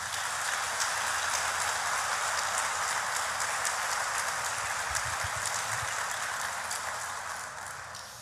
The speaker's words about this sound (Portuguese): Aplauda Jesus bem forte hoje.